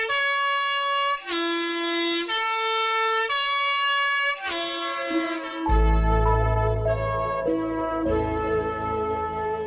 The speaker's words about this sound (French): ce klaxon est toujours installé sur tous les cars postaux de montagne